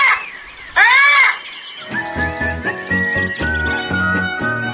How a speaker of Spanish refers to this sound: Cotorra serrana de oriente